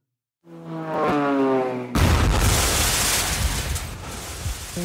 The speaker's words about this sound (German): So, du hörst dieses Flugzeug. Wum.